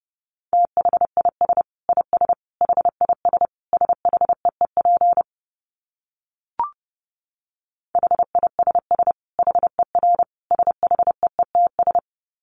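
Fast Morse code at 30 words per minute in a steady mid-pitched tone, with rapid on-off dots and dashes in quick bursts, a pause with a single short blip, then more rapid keying. No voices.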